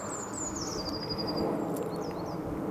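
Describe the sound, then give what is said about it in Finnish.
A bird sings outdoors, a high thin descending trill followed by a couple of short chirps over a steady rush of wind and background noise. “Sieltä lintu oli samaa mieltä, että ihan normaali meininki.”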